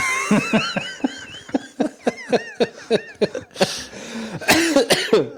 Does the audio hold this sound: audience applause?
no